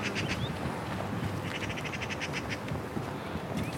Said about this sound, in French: Nous sommes sur la petite ceinture. Désormais, la présence de la ville se fait beaucoup plus discrète. On entend moins de voitures et plus d'oiseaux.